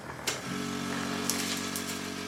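A medical suction machine clearing a patient's lungs in an intensive-care shared flat switches on with a sharp click and runs with a steady, loud droning hum and airy hiss, broken by a few brief high gurgling slurps. Nobody speaks.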